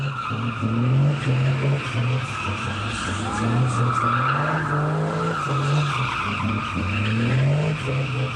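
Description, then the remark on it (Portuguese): Car tires squeal loudly and continuously as a driver shows off, spinning the car on a deserted street in Brazil, the screech wavering in pitch over a droning engine and broad rushing noise. “Na rua deserta, o motorista se exibe, faz o carro rodar na pista e canta pneu.”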